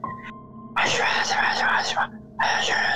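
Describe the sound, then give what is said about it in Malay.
A voice imitates ghostly whispering, like someone chanting a mantra: breathy, hissing, unintelligible murmurs in two long bursts separated by a brief pause, fairly loud, with no clear words. “Ha, macam berbisik tapi tak tahu apa benda yang dia cakap.”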